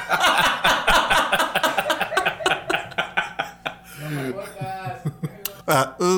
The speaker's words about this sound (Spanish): Escuchó un sapito. ¿Cómo es? Se escuchó un sapito. Ya, ya está saliendo la rana. y todavía no llega la lluvia, eh, güey. Ah, ya cantando para la lluvia, pues.